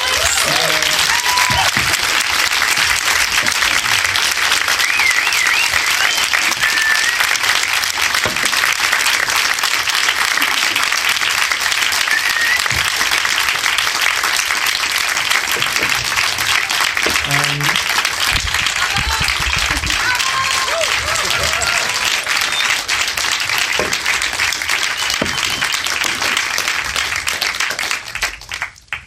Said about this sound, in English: that was a very well deserved applause. I salute you both.